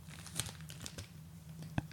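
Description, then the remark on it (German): Crinkly rustling of a plastic tissue packet as a tissue is pulled out, with scattered sharp crackles and a brief louder snap near the end, no talking. “Ich nehme jetzt eine, eine Tüte Taschentücher und nehme jetzt ein Taschentuch raus.”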